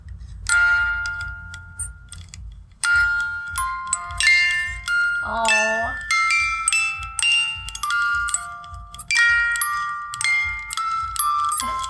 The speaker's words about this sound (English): My mother in law actually sent me something so cute. It's this little brown music box. So cute. That it looks like something out of like a German toy shop.